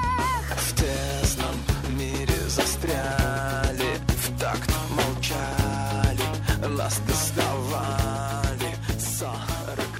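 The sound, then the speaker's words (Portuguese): Loud, dense heavy rock music plays throughout, with pounding drums on a steady beat, thick distorted guitars and a deep sustained bass line, no voices over it. “Solta o som na caixa aí, que é pauleira pros nossos ouvidos.”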